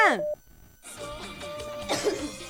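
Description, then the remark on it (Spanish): A person coughs several times in quick succession, moderately loud, with a short tonal sliding sound and a pause just before the coughing begins. “sigo tosiendo papeto por ti.”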